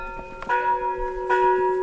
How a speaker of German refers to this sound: Im Tempel oben am Berg findet ein Ritual statt. Für jeden Aufstieg darf die große Glocke einmal geläutet werden. Bei mir ist das schnell erledigt.